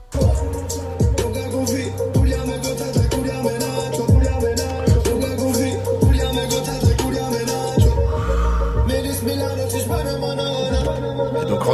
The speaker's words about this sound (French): Et il a balancé aussi un extrait. je pense qu'il est solo sur ce titre, mais on verra bien. En tout cas, écoutez ça.